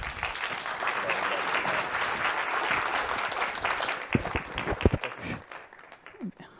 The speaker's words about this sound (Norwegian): Gi henne en applaus.